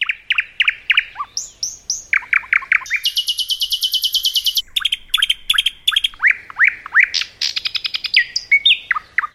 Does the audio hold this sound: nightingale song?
yes